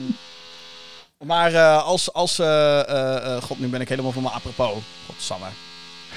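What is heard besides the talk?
drilling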